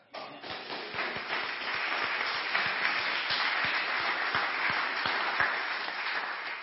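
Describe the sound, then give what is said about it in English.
A crowd applauds the hiring of two teachers for their school, many hands clapping in a dense, even patter that holds at a constant loud level from start to finish, with no voices rising above it. “Now, as you're sitting there and we're clapping and we're so excited about what God's doing, there's more.”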